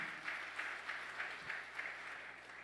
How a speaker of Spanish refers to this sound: Dele otro aplauso fuerte.